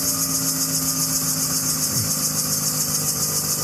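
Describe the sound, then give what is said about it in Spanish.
A faulty ball bearing, each ball vibrating from impacts along with the whole system, gives a steady, piercing high-pitched whine over a low mechanical hum, droning continuously at constant loudness with no voices present. “claro, cada, cada bolita, cuando lleva ese golpe, comienza a vibrar ella también y todo el sistema. Y ahí aparece la frecuencia alta, que sería el otro ejemplo que os he puesto, que, son los agudos.”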